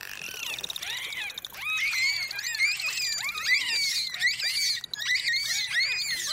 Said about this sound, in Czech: Celú uštipačnú diskusiu delfínov skákavých o farbe vašich plaviek si môžete vypočuť na svojej exotickej dovolenke.